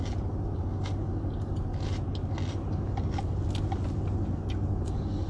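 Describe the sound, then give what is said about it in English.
Crisp crunches from someone biting and chewing a raw green pepper, repeating irregularly over a steady low rumble like a running vehicle. “Eating a green paper, pepper, rather.”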